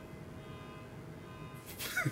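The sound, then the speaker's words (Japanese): After a stretch of quiet room hum, a short car horn blast sounds from outside near the end, brief and somewhat muffled, with no talking. “え、終わりの合図 もう、もう営業開始ですよのクラクションですか、これ誰が俺のボスかなんかがもう、あと7分ですよ。”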